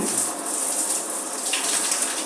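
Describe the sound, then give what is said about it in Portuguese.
Steady shower water pours in a continuous hissing spray in a home shower stall, broad and even with a bright, splashy texture and no pauses, as someone showers at 6 p.m. to get ready for an evening class. No one speaks. “E esse aqui é o podcast Tomando Banho.”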